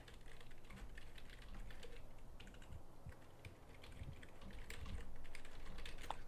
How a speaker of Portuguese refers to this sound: Você tá digitando aí também? Deixa eu ver se eu vou digitar aqui ver se eu acho.